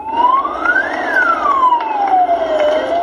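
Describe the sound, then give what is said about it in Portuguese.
A fire truck siren wails loudly, sweeping up in pitch and then sliding slowly back down over a steady low rumble of traffic, with no one speaking, as the fire truck carries the coffin of Maguito Vilela through the streets of the capital. “Num caminhão dos bombeiros, o caixão seguiu pelas ruas da capital.”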